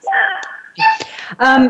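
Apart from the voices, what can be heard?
dog whimpering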